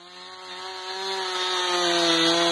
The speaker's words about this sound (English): Let's just say you're out in the forest uh, chopping wood.